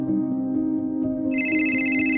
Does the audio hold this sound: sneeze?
no